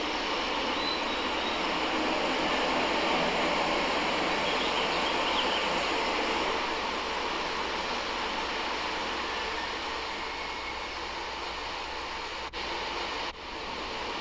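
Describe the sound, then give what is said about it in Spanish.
Steady outdoor street ambience: a dense, continuous wash of traffic rumble and hiss that holds at a constant level throughout, with no voices. “Estoy en la calle.”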